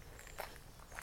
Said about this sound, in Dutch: Ik hoop eigenlijk dat je hoort waar ik loop. Ik loop op een schelbepaadje.